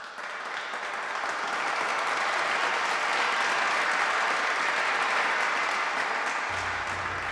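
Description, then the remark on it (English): An audience claps steadily to welcome a speaker, the applause swelling quickly and holding at a full, dense level for several seconds with no voices over it. “Let's give her a warm welcome.”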